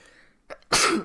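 A single loud sneeze, with a short sharp inhale just before the explosive burst, then quiet.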